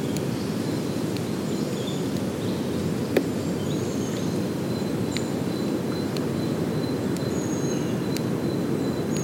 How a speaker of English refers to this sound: Capture the sound of this woodland ecosystem. through a whole year.